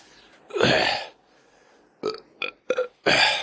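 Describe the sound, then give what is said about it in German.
A loud, drawn-out burp after drinking white wine, then a few short throaty gulps or mini-burps, ending in another long, forceful belch, with no talking. “Vom Weißwein kann man nicht so gut rülpsen, der perlt nicht so gut wie, wie das Pilz oder äh, das Export.”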